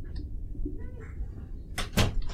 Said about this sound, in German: Warte, mach mal die Tür zu